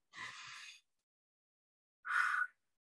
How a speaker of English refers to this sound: Beautiful. Deep breaths in and out, focusing inward.